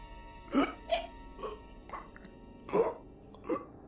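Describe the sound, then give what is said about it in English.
Wet, gurgling gasps for breath come in about six irregular, choked bursts, each a short strained rasp, with brief pauses between them and no talking. “After coming to this realization, I heard a repulsive gurgling sound.”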